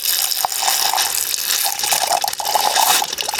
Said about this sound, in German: hier vor einem der äh, Brunnen, äh, der Haustrunk, wie er denn äh, hier genannt wird. Ähm, ja, es sind eigentlich nur zwei Wasserstrahle, die aus der Wand rauskommen.